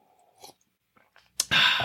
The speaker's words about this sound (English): Let's take a little sip of this, a little sip of this whiskey here.